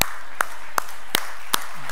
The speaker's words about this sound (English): I'm going to clap for myself.